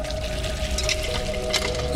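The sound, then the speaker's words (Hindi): Water from a village hand pump, worked by a woman at night, pours out in a steady, continuous splash, moderately loud, with a faint steady hum underneath and no voices. “यही सोचते हुए वो अभी हैंडपंप के पास से गुजर ही रहा था जब रमेश को हैंडपंप चलने की आवाज साफ साफ सुनाई दी”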